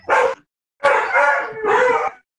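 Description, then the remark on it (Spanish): A dog barks once, then lets out a drawn-out, wavering howl-bark in two quick bursts, fairly loud, with no talking. “Ahí está el perro.”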